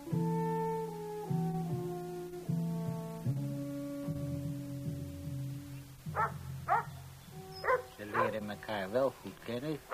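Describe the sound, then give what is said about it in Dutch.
Several dogs bark in quick, sharp bursts that grow busier toward the end, after a stretch of long, drawn-out whining or howling tones. The barking is fairly loud. “Die honden, hè?”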